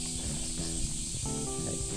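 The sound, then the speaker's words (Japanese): Summer cicadas buzz outdoors in full song in a steady, high, hissing drone that holds at an even level throughout, with some faint low humming tones beneath it. “いやもうセミが本格的に鳴いてますねあの雨が多かった時は若干おとなしかったですけど”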